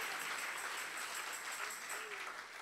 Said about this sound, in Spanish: Si le va a dar el aplauso al Señor.